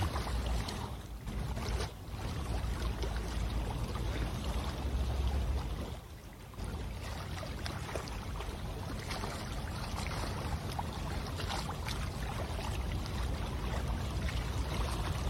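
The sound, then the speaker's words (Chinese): River water in Tamsui laps steadily against a riverbank wall and small protruding stones as the tide comes in, a dense, continuous wash of small splashing waves with a brief dip midway, no voices present. “即将要涨潮，所以水才会一波又一波，一波又一波的来。”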